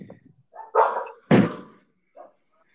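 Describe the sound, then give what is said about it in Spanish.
A dog barks twice in quick succession, loud, with a softer yelp trailing after; no one speaks over it. “es que el, perro no se callaba, güey.”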